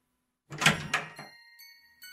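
A front door is unlatched and pulled open with a few heavy clunks and a rattle, then a thin, steady ringing tone hangs on briefly and sounds again. No one speaks.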